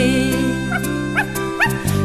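Three short, high puppy yips and whimpers, evenly spaced about half a second apart, rise over a steady musical backing that plays throughout.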